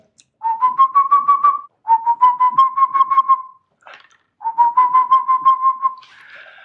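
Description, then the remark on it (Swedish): A person whistles an imitation of a boreal owl call: three clear phrases, each a quick run of about eight hooting notes that rise slightly, separated by short pauses. “Underbart att höra både slaguggla och pärluggla. Den låter ju så här”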